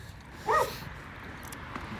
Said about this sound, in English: There we go. There's my doggy.